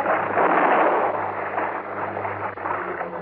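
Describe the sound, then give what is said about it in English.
A loud, continuous rush of churning water as a boat is kicked and overturned and a man falls into the water, with a dull rumbling gunshot blast underneath and no voices. “I kicked with all I had and overturned the boat. As he entered the water, Hellman fired again.”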